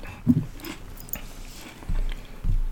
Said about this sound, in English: When you're done chewing, no, yeah, I'm good. Let me know when you're chewing.